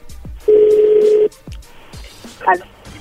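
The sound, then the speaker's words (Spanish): A telephone call tone as a call goes through again: one loud, steady, mid-pitched beep holding for under a second, followed by quiet background noise and a brief warbling chirp. “No, llámalo otra vez, güey. Ya entró la llamada ahí de nuevo.”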